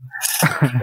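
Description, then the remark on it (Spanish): A single loud sneeze: a sharp, breathy burst that trails into a short voiced exhale, with a faint low hum just before it. “Saludo para ella, para ella. Salud.”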